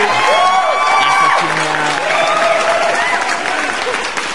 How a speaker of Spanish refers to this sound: ¡Aplausos, chingada madre! ¡Aplausos! aplausos bien aguados.